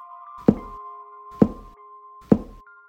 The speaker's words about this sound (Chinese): 终于，大概在接近两点的时候，那个一阵阵熟悉的敲墙声音。开始慢慢的出现了。